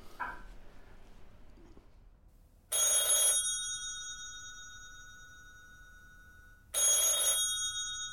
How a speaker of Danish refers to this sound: Hvor telefonen i antikvitetshandel må have ringet non-stop.